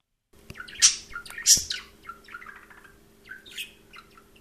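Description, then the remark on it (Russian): A talking parrot calls out with two loud, harsh squawks early on, followed by a scatter of softer chirps and whistles over a faint steady hum, with no words spoken. “А у нас, кстати, есть возможность, да, послушать типа попугая говорящего.”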